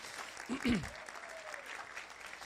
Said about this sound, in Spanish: ¿Cuántos dicen amén a eso? ¿Cuántos le pueden dar un aplauso a Dios por esa palabra?